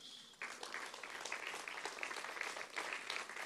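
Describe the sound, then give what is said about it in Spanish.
A church audience bursts into applause for God during a sermon, steady and dense after a brief quiet start, many hands clapping together in a continuous, fairly loud wash of sound with no voices over it. “¿Cuánto le da un aplauso a Dios?”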